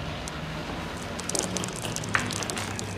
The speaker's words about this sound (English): The uh, ceiling appears to be leaking. No, it's not. We've looked into it and it's not.